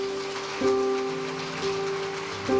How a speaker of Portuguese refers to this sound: Aplauda a vida deles, irmãos.